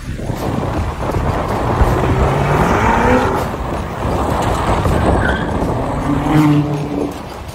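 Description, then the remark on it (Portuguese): A car engine rumbles steadily from inside the vehicle as it drives through a town and is about to turn, with a dense, continuous low roar of road noise and a few faint tonal hums rising and fading over it. “Nós vamos virar ali, eu vou parar o carro para contar essa história para vocês.”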